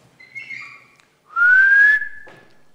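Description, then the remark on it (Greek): A person whistles: a softer wavering tone first, then a loud, sustained rising whistle lasting under a second, with a faint trailing blip after. “Τώρα τόσο βαρύτητα έχει το σφύριγμα.”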